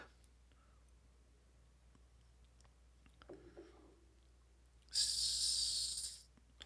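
A quiet sip of water: faint mouth clicks and a soft slurp, then a loud, airy exhale lasting over a second. No one speaks.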